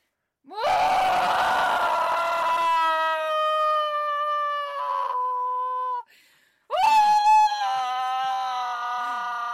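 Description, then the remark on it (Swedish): A voice loudly imitates a guy in a shop bursting into a long, drawn-out wailing scream, two sustained strained cries with a brief pause between them, rising and bending in pitch like a dying whale. “börjar gapa som Ja men en döende val.”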